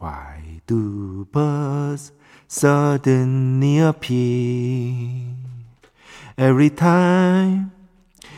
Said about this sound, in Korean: 리버브 리버브 리버브 리버브 잘 들리죠? 리버브 잘 됩니까